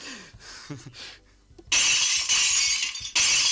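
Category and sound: impact, window glass shattering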